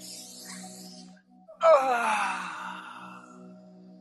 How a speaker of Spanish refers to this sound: Ah, tomamos esa respiración profunda y nos estiramos nuevamente.